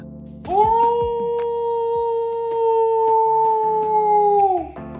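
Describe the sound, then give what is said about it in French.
A wolf lets out one long, loud howl that swoops up, holds a steady pitch for about four seconds, then sinks away. No voices, only faint background noise. “Avec ces hurlements, vous avez sans doute deviné de quoi nous allions parler.”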